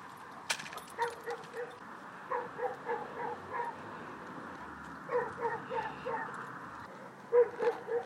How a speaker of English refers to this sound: What, what is that dog going on about?